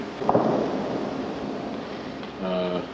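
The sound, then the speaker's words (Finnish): A single gunshot-like boom of gunfire in a war zone rolls out early and echoes into a long, rumbling decay over steady background noise, followed near the end by a brief tonal voice-like sound. “Tuolta suunnasta tulee tällä hetkellä noita laukauksia.”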